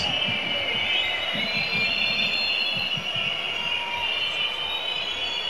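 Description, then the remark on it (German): A stadium crowd of Salzburg football fans whistles in protest at a player, a loud, continuous shrill wall of many overlapping high-pitched whistles wavering in pitch, with a low crowd rumble beneath and no talking. “Ein Pfeifkonzert natürlich von den Salzburger Anhängern.”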